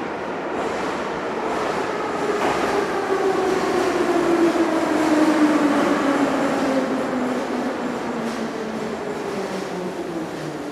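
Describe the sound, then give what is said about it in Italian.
A Singapore metro train runs steadily with a continuous rumbling roar, a gliding tonal whine that slowly falls in pitch, and faint rhythmic clatter, loud throughout with no voices. “vi garantisco che la metropolitana di Singapore è nettamente la migliore del mondo.”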